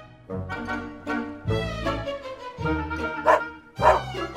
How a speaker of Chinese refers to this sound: 随着九只狗的吠叫和小公鸡喇叭似的长啼，拿破仑也出来了。